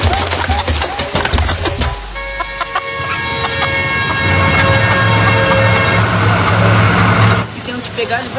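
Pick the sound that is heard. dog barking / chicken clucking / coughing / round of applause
chicken clucking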